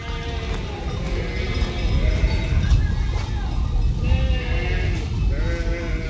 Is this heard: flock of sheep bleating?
yes